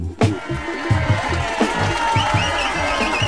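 Crowd cheering and whoops ride over a steady dance beat, with thumping kicks and bright, noisy texture across the track.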